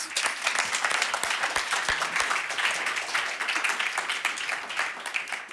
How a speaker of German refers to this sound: Applaus